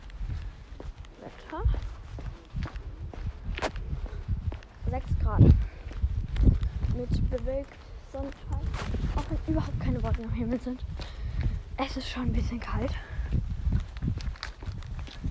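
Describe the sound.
Steady footsteps tap along a hard street surface at an even walking pace as a person walks outdoors in slightly cold weather, continuing beneath a person talking casually throughout.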